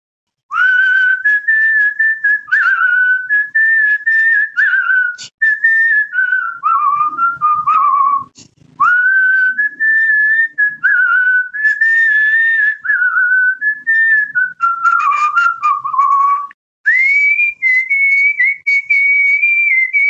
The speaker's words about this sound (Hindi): नहीं मेरी सीटी थोड़ी उससे मधुर होती है तो सर जरा हो जाए फिर एक मैं अभी कल ही रिकॉर्ड कर रहा था